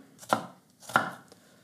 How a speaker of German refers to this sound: Wie gesagt, jetzt einfach würfeln. Ich schneide zweimal parallel zum Brett merke, ich sollte mein Messer mal wieder schleifen und Streifen von oben runter